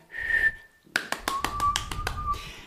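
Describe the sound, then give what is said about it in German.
A person whistles a steady high tone, then keeps whistling a lower note while sharp finger snaps ring out in a quick rhythmic series. “Lauter, lauter kann ich nicht pfeifen.”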